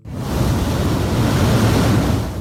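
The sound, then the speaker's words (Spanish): A steady, heavy roar of sea water rushing through the bufones de Pría, blowholes in limestone cliffs near Llames de Pría on the Llanes coast, a dense low rumble with hissing spray that swells in quickly and holds loud throughout, with no voices. “Son los bufones, Grietas en la roca caliza por las que se cuela el agua del mar”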